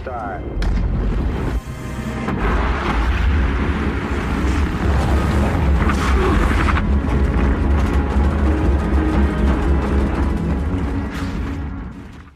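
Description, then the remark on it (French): A rocket lifts off in a scene from the film First Man by Damien Chazelle, with a deep, thunderous roar that swells quickly and holds steady, a dense crackling rumble that stays loud for over ten seconds before easing slightly. “Ce décompte si particulier, celui du décollage d'une fusée, créateur de sentiments forts”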